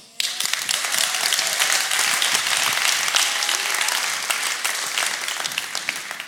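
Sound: audience applause in church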